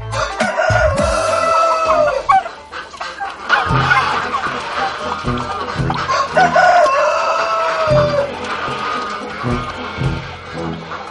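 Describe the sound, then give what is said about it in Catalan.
A rooster crows loudly a couple of times over a busy flock of clucking hens, all close and continuous, with a steady low thumping beat running underneath. “Bé, i allò, la casa, se li havia omplert de gallines i galls i ja no cabien més.”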